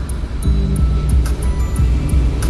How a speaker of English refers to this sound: running virtual boat simulation generating soothing seascape accelerating to 35 knots.